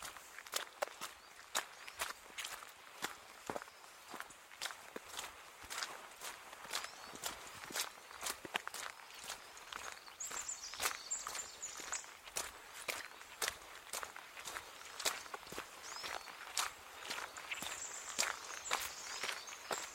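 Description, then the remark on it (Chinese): Steady hiking footsteps crunch along a mountain trail at an even walking pace, each step a crisp scuffing thud, with a few faint high bird chirps in the background and no talking. “Walking Podcast 是一档纯走路的播客，主播在山里徒步时的脚步声，基本上就是这个节目全部的内容。”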